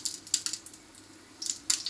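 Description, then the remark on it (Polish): Fat sizzling in a frying pan where breaded cutlets are frying, heard alone as a quiet, hissing crackle that comes in uneven bursts of sharp pops, with a brief lull in the middle. “Słyszę, że tam tłuszcz jeszcze skwierczy, więc chyba nie będzie.”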